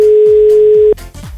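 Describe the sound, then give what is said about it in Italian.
A telephone ringback tone on an outgoing call, the fifth attempt, which goes unanswered, sounds once, a steady, clear hum for nearly a second, then cuts off abruptly, leaving a soft wash of line noise and low thumps. “Ultimo squillo, poi dai, andiamo con un altro.”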